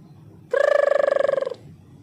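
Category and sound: household object, doorbell ringing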